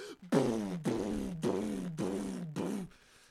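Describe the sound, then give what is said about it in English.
A voice imitates booming 808 bass from a man's car with its window down, the car slightly bouncing, with five loud, evenly spaced low 'boom' sounds, each sliding down in pitch, like a car stereo thumping out a beat. “The 808s are so bad. His car is like slightly bouncing in.”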